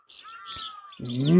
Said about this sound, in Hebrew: ומצד שמאל שוב נשמע אותו קול. אתם מנחשים כבר מי שר לצייד. נכון, הציפור, ציפור החופש.